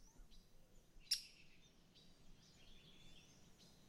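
Amazon rainforest birdsong: scattered high chirps and warbling trills over a soft, steady ambient hiss, with one sharper, louder call early on. Fairly quiet, no voices.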